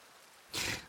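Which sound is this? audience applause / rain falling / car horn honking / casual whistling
rain falling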